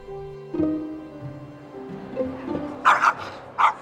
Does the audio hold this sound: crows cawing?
no